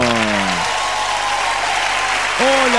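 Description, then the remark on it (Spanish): Steady, dense applause for a woman from the private hospital fills the whole stretch, a continuous bright wash of clapping. A voice speaks over it briefly at the start and again at the end. “Un aplauso para la chica del hospital privado.”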